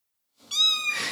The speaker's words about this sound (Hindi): एक म्याओं की आवाज़ सुनाई दी ये वही बिल्ली थी जिसके बारे में प्रणति बताती रहती है